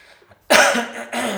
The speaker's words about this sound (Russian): Капец, я громко кашляю, да?